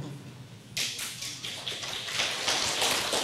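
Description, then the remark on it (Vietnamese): An audience at a teacher's talk on karma breaks into applause in answer to his question after a brief quieter moment, a dense, crackling patter of many hands clapping that holds steady and grows slightly fuller toward the end. “đúng không mà vỗ tay vỗ tay nghĩa là đúng hay sai à thầy hết hồn”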